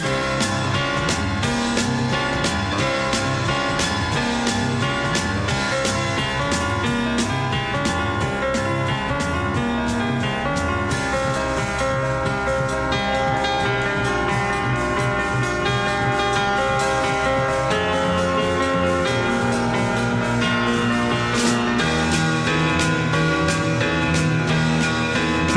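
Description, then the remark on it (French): A loud, dense progressive rock instrumental by a Dutch band reworking a classical symphony theme, with driving drums, bass and layered keyboards or guitars playing steadily throughout, no voices. “c'était un groupe de rock progressif néerlandais qui a fait un énorme succès avec cette version de la cinquième, avant de retomber dans l'oubli quelques années plus tard.”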